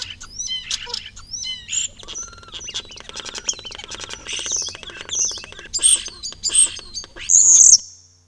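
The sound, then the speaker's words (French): A bird's soft, intricate twittering song, used for short-range communication between partners, runs for several seconds, mixing rapid rattling trills, twittering notes and brief high whistles in a varied, continuous stream, with no other sounds. “Le gazouillis, c'est plus pour la communication à courte distance et en particulier entre partenaires”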